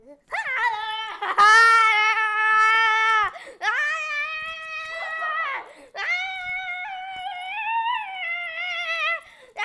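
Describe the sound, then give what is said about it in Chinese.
A voice imitates toy chicks boxing with three long, strained, high-pitched squealing cries, wavering and loud, each held for a couple of seconds with brief gaps between. “好，那你示范一下小鸡打斗是什么声音？”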